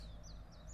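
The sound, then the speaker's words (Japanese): Birds sing faintly, a few high, sweeping chirps repeating every quarter second or so over a steady low outdoor rumble, on a hilltop at a whale-cuisine guesthouse overlooking the Sanriku sea, with mountains behind. “でも背後には山がどーとあって緑と海のコントラストが本当に綺麗で鳥の声も綺麗だし”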